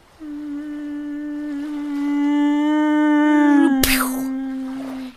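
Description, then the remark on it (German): A voice imitates a mosquito with a steady, nasal buzzing hum held for about five seconds, rising slightly in pitch. A single sharp slap near the end briefly interrupts the buzz. “Ich selber war äh, jahrelang, ähm, äh, habe die Mücke synchronisiert für Zoo-Shows und auch für Hollywood-Filme.”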